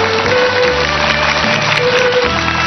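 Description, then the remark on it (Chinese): A crowd claps steadily and densely for a few seconds, the applause holding an even, loud level while a low musical drone and sustained tones continue underneath. “有悔过的亲的朋友们来点掌声。”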